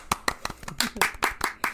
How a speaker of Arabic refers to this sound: تصفيق تصفيق